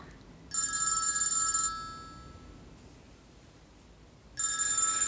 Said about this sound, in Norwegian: Og så tenkte jeg jeg håper telefonen ringer igjen, og det gjorde den jo.